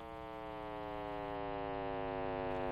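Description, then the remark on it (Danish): Sonified early-universe signals from the Big Bang and the first roughly 800,000 years of the universe, captured with special equipment and converted into sound: a dense, steady electronic drone of many stacked tones with a low throbbing pulse underneath, continuous and fairly loud, with no voices. “For faktisk mener man, at det har lyttet sådan her ved Big Bang – og de første små 800.000 år af universets liv.”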